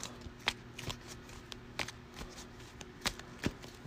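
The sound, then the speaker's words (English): A deck of cards is given a quick shuffle, a run of crisp snapping riffles and soft flutters repeating irregularly over a few seconds, with a faint steady hum underneath and no talking. “I'll give my deck a quick shuffle.”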